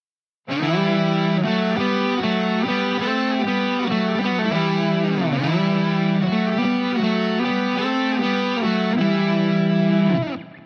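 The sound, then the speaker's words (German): A distorted electric guitar melody played in three-part harmony, layered lines moving together in octaves and thirds, loud and sustained for about ten seconds with no talking. “Wie würde jetzt eine dreistimmige Melodie klingen? Mit Oktaven und Terzen.”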